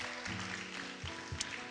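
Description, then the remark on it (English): An audience claps steadily in praise of Jesus in a dense, continuous wash of applause, with sustained low musical tones, like an organ or keyboard, playing underneath. “Let's give Jesus a hand clap of praise this morning for the word we heard.”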